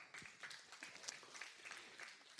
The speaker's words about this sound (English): he can't hear you, but thank you for clapping anyway.